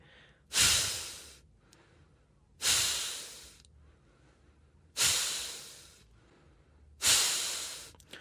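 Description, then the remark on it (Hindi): Four forceful, breathy exhalations of kapalbhati yoga breathing, with the belly pulled in on each exhale and silent inhales. They come at a slow, even pace about two seconds apart, each a sharp hissing whoosh that fades quickly, with near silence between them. “तो सांस निकालने की तो आवाज हुई भरने की आवाज नहीं हुई सांस निकालने में पेट अंदर गया और सांस भरने के साथ साथ पेट ढीला हो गया आराम में आ गया”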